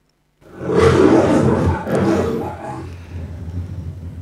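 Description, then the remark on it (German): A lion lets out a single loud, deep roar that swells and holds for a couple of seconds, then trails off into lower rumbling grunts as it fades. “Wir wollen uns ganz am Anfang einmal das Gebrüll vom Löwen anhören, damit ihr einmal hört, wie, wie, wie krass das ist.”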